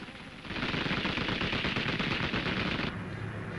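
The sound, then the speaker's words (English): Rapid bursts of Japanese anti-aircraft battery gunfire at Shanghai, aimed at incoming Chinese bombers, pound away continuously, a dense, crackling barrage with the thin, slightly muffled quality of an old newsreel recording. “Japanese batteries are on the lookout for Chinese planes, and here they come, bombers.”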